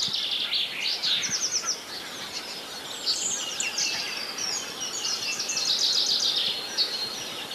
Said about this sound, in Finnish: Peippo yrittää laulaa.